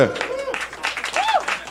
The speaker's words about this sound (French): Un, applaudissement.